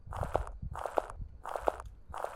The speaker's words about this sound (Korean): 냄비는 금세 들여놓았지만 잠시 뒤에 동물의 가벼운 발소리가 텐트 주변에서 탐색이라도 하는 것처럼 걷는 것이 들린다.